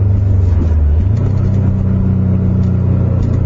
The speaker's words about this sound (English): Good God. Yeah, so uh, that's officially the fastest this car has ever gone.